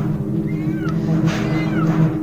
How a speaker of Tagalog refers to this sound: Ayan na naman ang mga pusa sa paligid.